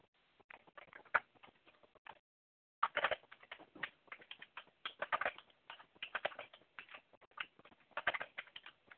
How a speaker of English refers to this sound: Are you like mad typing right now? Yeah.